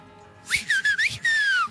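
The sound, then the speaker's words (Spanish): A short whistled tune of a few connected notes, sliding up and down in quick bursts before one longer held tone, clear and in the background, with no one talking. “Este, pero bueno, es un, es un abrazo fraternal así en el fondo silbidito”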